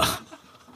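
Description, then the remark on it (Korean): A single sharp, deliberate fake throat-clearing cough, made when asked about English song lyrics, bursts out, then trails off into a quiet, murmuring room tone with no further coughs. “어떤 대목이 그 무슨 영어만 물어보면 그렇게 헛기침을 해요.”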